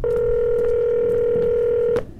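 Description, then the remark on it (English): Telephone tone of an outgoing call: one steady, mid-pitched electronic tone holds for about two seconds, then cuts off abruptly. No one speaks. “Calling Rove.”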